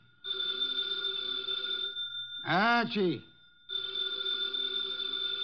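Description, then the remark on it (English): An old-fashioned telephone bell rings loudly in Nero Wolfe's office in two long bursts, separated by a pause in which a man calls out a single word. “The phone, if you please”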